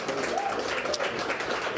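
A crowd applauds steadily as Cartier Diarra, a redshirt junior from Florence, South Carolina, is introduced: a dense wash of many hands clapping at an even, sustained level with no single claps standing out, and no one speaking over it.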